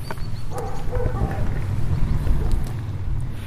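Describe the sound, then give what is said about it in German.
A dog, belonging to the local electronics shop in Brandenburg, barks a few times, its short yaps half-buried under a steady low rumble of background noise. “Bellt auch mal irgendwo ein Hund.”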